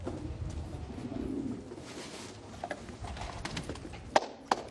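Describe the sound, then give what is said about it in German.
Soft coos of pigeons kept on a rooftop in Syria rumble low under an outdoor hum, followed by a few light taps and a couple of sharp clicks near the end, like birds shuffling on the roof. “Oben auf dem Dach züchtet der alte Herr Tauben wie viele Syrer.”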